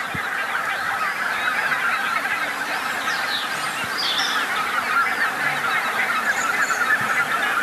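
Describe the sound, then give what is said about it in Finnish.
A dense, steady chorus of many birds calling at once over fields on a dark spring night, picked up by microphones at the edge of a field and in a small wood beside it, with overlapping honking and chattering calls that never pause across the whole stretch, fairly loud and with no talking. “No semmoinen aamu, siis tämä oli sitä yön äänimaisemaa.”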